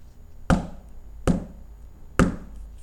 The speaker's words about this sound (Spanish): Mientras ella veía asombrada, volvieron a tocar la puerta tres veces.